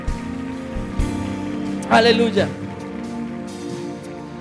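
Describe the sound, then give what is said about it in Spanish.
A church audience applauds the Lord in a steady, dense patter of clapping that continues throughout, while a man's voice calls out briefly over the applause. “Dale bien fuerte el aplauso al Señor.”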